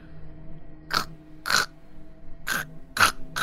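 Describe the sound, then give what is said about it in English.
A voice imitates an ice sheet in front of a door cracking, with little cracks and hairline fractures opening up: five short, sharp, raspy bursts at uneven intervals, each a crisp crackle standing out clearly over a low steady hum. “as little cracks and hairline fractures begin opening up in the ice sheet in front of the door.”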